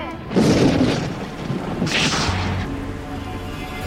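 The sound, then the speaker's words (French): On a dark stormy night streaked with lightning, a loud crack of thunder rolls out, followed a second later by another rumbling boom, with a low storm rumble lingering underneath. “Un soir terrible, sombre, strié d'éclairs.”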